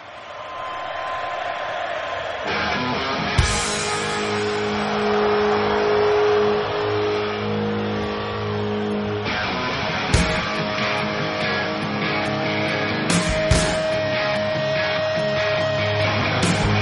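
A hard rock song plays loudly, with dense, gritty distorted guitar chords droning steadily and a few sharp crashing hits cutting through; no singing is heard yet.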